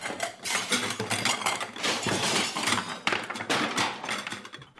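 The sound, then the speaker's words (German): A dish cart rumbles into a wall, crashing and rattling, dishes and cutlery clattering and clinking loudly in a dense, continuous jangle for several seconds before trailing off. “Dabei ist der Geschirrwagen gegen die Wand gerumpelt.”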